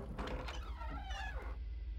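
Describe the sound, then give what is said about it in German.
A door swings open with a drawn-out, wavering squeal of the hinge lasting over a second, fairly loud above a steady low hum. “Genau in diesem Moment öffnet sich eine Tür mit einem fiesen Quietschen.”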